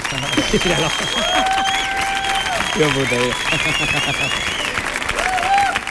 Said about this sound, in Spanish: Eh, por favor, fuerte el aplauso para